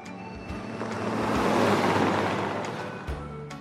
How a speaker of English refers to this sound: This is a road.